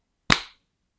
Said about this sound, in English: Okay, we both clapped, right? I clapped. I think it picked up.